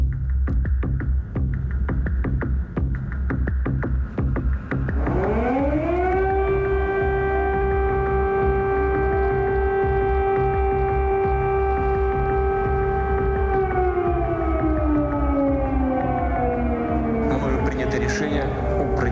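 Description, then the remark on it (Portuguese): An air raid siren in Europe during wartime winds up after a few seconds of low rumbling background noise, holds a loud, steady wail for several seconds, then slowly winds back down. “A guerra é, e as sirenes, de facto, eh, ouviram-se de novo no velho continente.”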